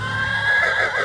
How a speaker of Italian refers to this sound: Salì sulla passerella, abbassò la testa, varcò la soglia e si voltò verso il suo amico con un nitrito.